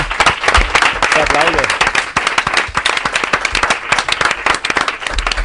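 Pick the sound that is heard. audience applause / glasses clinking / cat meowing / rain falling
audience applause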